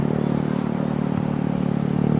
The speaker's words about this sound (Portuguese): Vem gente em moto para lá e para cá de novo vão acabar me acertando aqui.